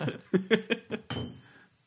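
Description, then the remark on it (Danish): A short burst of rhythmic laughter, then a single bright clink of glasses touching in a toast, its thin ring fading quickly. Fairly quiet. “skål. Nå, skål. Det var noget vand.”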